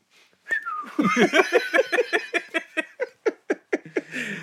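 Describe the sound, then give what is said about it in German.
A person whistles in a quick run of short, breathy bursts that pulse steadily and slowly fade, with a laugh-like quality to the rhythm and no talking over it. “dann pfeifst du einfach genauso umgekehrt, okay?”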